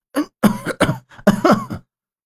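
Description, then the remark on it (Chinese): A burst of violent, hacking coughs, about five rough, voiced spasms in quick succession over two seconds, loud and hoarse, with no talking around them. “剧烈的咳嗽了起来”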